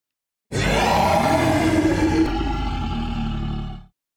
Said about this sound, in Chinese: 年兽妈妈再也忍不住了，她的脸被气得红彤彤的，从头到脚，全身都气得发抖。年兽宝宝从来没见过妈妈这个样子，这时，年兽妈妈张开嘴巴，大吼了起来。